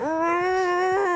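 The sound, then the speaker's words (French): A small Jack Russell terrier lets out a single sustained, high-pitched whimper with its mouth closed, a steady whining tone lasting just over a second, fairly loud with no talking. “Alors, on était embêtés parce qu'elle couinait la bouche fermée au moment où”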